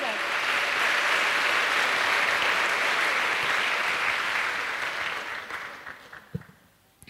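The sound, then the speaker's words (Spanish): An audience at an evening church service applauds the Lord in a dense, sustained wash of clapping that holds steady for several seconds, then thins out and fades, with a few last scattered claps at the end. “¿Cuántos pueden darle un aplauso con todas sus fuerzas?”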